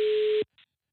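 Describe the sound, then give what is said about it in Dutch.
A steady, clear telephone ringing tone of an outgoing call to a listener sounds once for under half a second, then stops abruptly, leaving silence broken by a faint brief crackle. “Ik belde even wat mensen die vaak luisteren en zo nu en dan ook best kritisch zijn”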